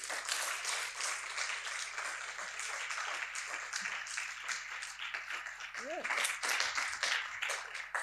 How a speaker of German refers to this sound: Ein gebührender Applaus für Wonder Woman heute Abend.